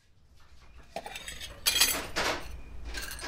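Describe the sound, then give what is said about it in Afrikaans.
Dishes and cutlery clatter and clink in a sink, with bursts of bright metallic rattling and splashing that grow louder partway through and continue unevenly, without any talking. “Los maar die skottel goed vy.”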